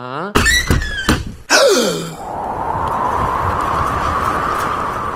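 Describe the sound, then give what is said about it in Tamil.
A voice imitates a door creaking open with a few drawn-out, squeaky, pitch-bending groans and a thunk, followed by a steady rush of airy, wind-like noise that continues to the end. “என்ன கதவை திறந்தா ஒரே வெட்ட வழியா இருக்கு”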